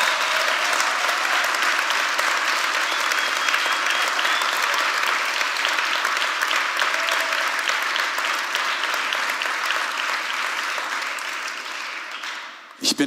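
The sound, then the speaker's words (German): Sustained, loud audience applause given to the Lord and to the whole team and technicians, a dense wash of many hands clapping steadily for about twelve seconds before tapering off abruptly at the end. “Also wollen wir einen Moment, aber dem Herrn, irgendwie dem ganzen Team, all der ganzen Teststation, all den Technikern, allen, die beteiligt sind, einfach nochmal einen mächtigen Applaus geben auf dem Herrn.”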